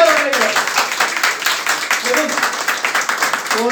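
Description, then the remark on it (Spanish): A crowd applauds steadily for several seconds, a dense wash of many hands clapping, with voices calling out faintly beneath it. “En este punto quiero darle un, aplauso”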